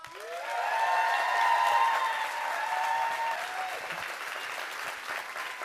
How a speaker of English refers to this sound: get crazy Big hands, big applause for Mr. Ryan Leak